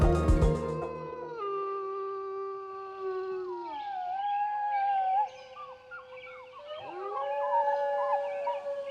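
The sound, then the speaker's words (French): Several wolves howl together in long, sliding tones that rise and fall and overlap into a sustained chorus, howls in different dialects. The voices are steady, and nobody speaks. “Ces sons, vous entendez, ce sont des hurlements de loups dans différents dialectes.”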